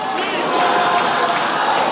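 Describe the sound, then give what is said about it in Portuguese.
A large crowd of organized supporters cheers and shouts continuously as federal deputy Baleia Rossi signs a constitutional amendment (PEC) at a signing ceremony, a loud, dense wash of many voices blending together with no pauses or distinct words. “Tá aí com torcida organizada, Baleia, tá aqui.”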